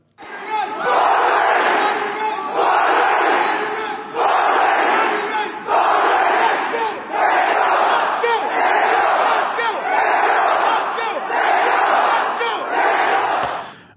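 A large crowd of roughly a thousand people, around 25 years old, roars in loud, rhythmic unison, with surging bursts of shouting that repeat roughly every second and a half, steady and full throughout without pause.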